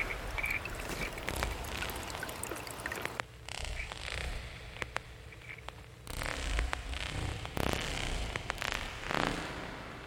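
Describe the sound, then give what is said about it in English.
A small creek flowing through a forest burbles and trickles steadily, a continuous watery babble with occasional sharper splashes and clicks, and no voices. “Nice little creek here flowing through the through the forest.”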